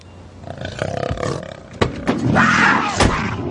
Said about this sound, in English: There's a goddamn cougar in the car. No, oh, there's a cougar in the car.